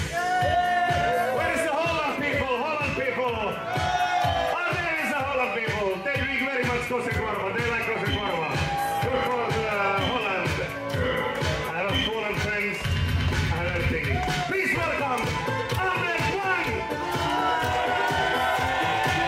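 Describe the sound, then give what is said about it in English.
A large, very international festival crowd at Super Italo weekend in Vaxi, 90 minutes north of Helsinki, roars and cheers, many overlapping voices forming a loud, dense wall of sound with shouts and whoops rising out of it throughout. “It's Super Italo weekend at Vaxi, 90 minutes north of Helsinki, and they have a very international crowd.”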